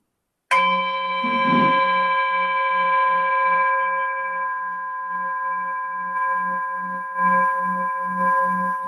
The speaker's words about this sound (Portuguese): Vamos usar este sino aqui, que é o sino que a Irmandade empresta